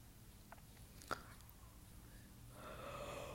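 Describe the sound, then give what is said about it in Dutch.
A sharp little click and some quiet breathing, then a drawn-out, breathy yawn from a tired speaker rises near the end, fairly soft, with no talking. “Oh, nou, ik begin een beetje moe te worden. Ik moet gewoon gapen.”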